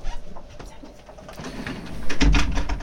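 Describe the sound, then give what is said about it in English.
A door swings shut with a solid thump and a brief rattle near the end, after a stretch of quiet background noise and faint shuffling. “can you please close the door?”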